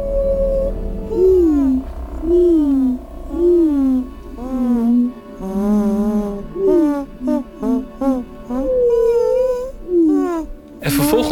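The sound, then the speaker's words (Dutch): A human voice imitates slowed-down wren song, singing a long string of sliding, warbling phrases that swoop up and down in pitch, with quick trills and short pauses, ending in a burst of noise. “Nadat ik die vogels eh, vertraagd had, merkte ik dat ik het met mijn eigen stem kon gaan nazingen.”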